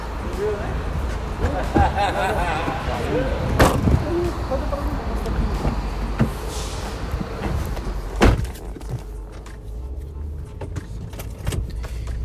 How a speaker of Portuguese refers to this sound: Peraí que eu vou abrir o porta-mala aqui, peraí. Opa!